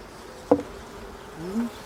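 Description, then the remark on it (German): Honeybees buzz around an opened hive as a comb is taken out, with a wavering, drifting drone, one sharp knock or tap partway through, and a louder bee swelling near the end. No one speaks. “Das ist jetzt notwendig für den Prozess der Bienensauna, dass man Luft, also praktisch Luftgassen reinmacht.”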